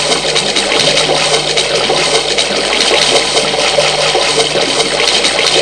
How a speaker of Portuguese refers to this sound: Então agora, na, aqui é o fundo do mar.